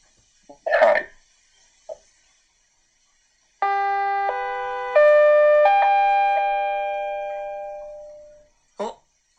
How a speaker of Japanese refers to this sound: ということで、このチャイムが鳴ったということは、コーナーがここで切り替わります。